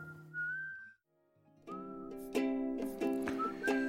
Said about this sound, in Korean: 인트로 부분에 휘파람 소리가 나오는데 오늘처럼 춥고 미세먼지가 자욱한 날 들으면 마음이 따뜻해질 것 같아요.